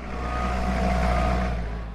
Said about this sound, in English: As a forklift operator steers another shipment of beer towards a truck, it's undeniable that business is good.